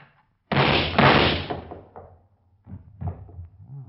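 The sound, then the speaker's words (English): A door is flung open and slammed with a loud crash that rings out for about a second, followed by a few softer thuds and rattles. “I said open the door.”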